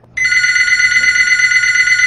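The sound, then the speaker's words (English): A telephone rings loudly inside a house, a bright, steady electronic bell that starts abruptly and sustains without a break to the end, with no talking. “Yeah, and then the phone rings super loud inside the house.”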